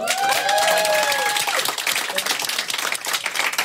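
Dense audience applause fills the whole stretch, a steady wash of many hands clapping, with a few high whistles or cheers sliding over it early on before the clapping thins slightly.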